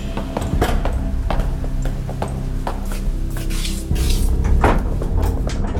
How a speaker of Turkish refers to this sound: Ağır kapıyı birlikte itip birlikte girdik içeri.